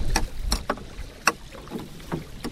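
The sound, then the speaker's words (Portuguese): Oars splash and knock rhythmically as fishermen row a boat slowly with the motor off while setting a fishing net, several strokes in steady succession, with a low wind rumble underneath. “Durante o tempo que a gente vai na água com a rede, não se pode pôr o motor a trabalhar.”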